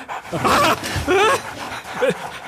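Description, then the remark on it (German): Dogs in a person's bed yip and whimper in three short, high-pitched bursts, the whiny cries sliding up and down in pitch with brief pauses between them. “Die Hunde! Überall Hunde in meinem Bett!”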